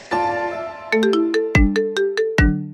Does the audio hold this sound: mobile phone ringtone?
yes